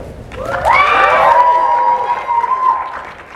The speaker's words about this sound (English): Round of applause.